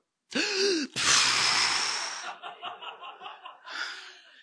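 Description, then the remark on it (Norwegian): A loud voice imitates sharp, panicked breathing: a quick voiced gasp, then a long noisy rush of air, followed by a string of rapid, choppy huffs like someone hyperventilating. “Han lurte vel på om jeg var redd å fly og begynte å hyperventilere.”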